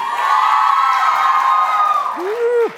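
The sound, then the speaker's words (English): A crowd of women in an audience cheers loudly in high, sustained voices for a few seconds, with a sharp rising whoop near the end and scattered clapping underneath. “Can the women make some noise?”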